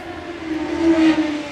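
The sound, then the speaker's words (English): A motorcycle passes outside, its steady engine drone swelling louder midway and then easing off slightly, with no one talking over it. “Sorry about the background noise. I know y'all probably heard that motorcycle.”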